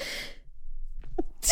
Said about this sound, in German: Oh, ich muss einmal niesen.